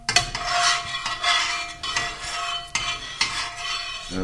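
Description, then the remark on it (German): A utensil stirs milk in a metal pot during cheesemaking, the milk being warmed slowly from 20 toward 32 degrees, with repeated scraping, swishing strokes and occasional clinks against the side, steady, with no talking. “Bin ich beim Rühren ungeschickt, oder?”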